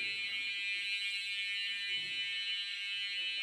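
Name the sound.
fire alarm sounding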